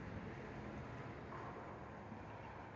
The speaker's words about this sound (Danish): biler dukker op, og deres lyde blander sig med lyden i mit øre.